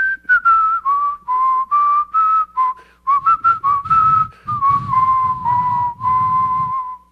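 A person whistles a lilting tune, clear pure notes gliding between phrases, with a low rumbling noise creeping in underneath during the second half.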